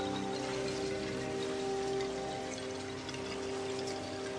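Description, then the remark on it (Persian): Heavy rain pours down like a flood over an open-air concert space, a dense, continuous hiss of drops across the full range with a faint low hum running underneath, no voices present. “بارون مثل سیل می تو اون فضای باز”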